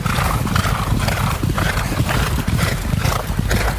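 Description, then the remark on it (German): Several horses clip-clop past, a steady stream of overlapping hoof beats on a hard surface, loud and continuous with no voices over them. “Die Pferde hatten Vorfahrt, jetzt können wir hier weitergehen, wieder über die Sandbahn hier.”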